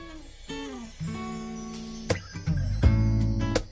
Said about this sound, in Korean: 네. 음악 하나 더 듣고 오겠습니다.